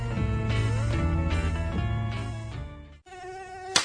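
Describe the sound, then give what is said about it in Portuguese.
A thin, whining mosquito buzz drones steadily for about three seconds, wavering slightly in pitch, cuts out briefly, then returns with a quicker warble. No one speaks. “Mosquito esquisito, sai fora do meu quintal.”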